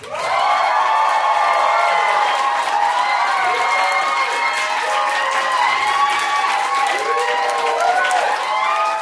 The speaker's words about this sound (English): Big round of applause.